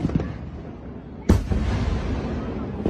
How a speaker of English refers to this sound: And the city of Logan will ring in the new year early this year with fireworks displays beginning at 7 o'clock on New Year's Eve.